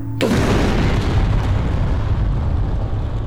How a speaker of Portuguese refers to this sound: Você explode, todo mundo só escuta esse barulho de impacto no chão, sobe até um pouco de fumaça.